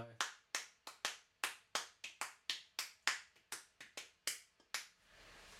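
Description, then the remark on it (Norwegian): Sharp hand claps ring out alone, clapping the rhythm of a piece's first theme: 8, 9 and 8 sixteenth notes divided into groups of two and three. About sixteen crisp claps fall in irregular twos and threes over several seconds, each with a brief decay. “Ja, men jeg tror man får ganske godt inntrykk ja. med, klappingen, egentlig.”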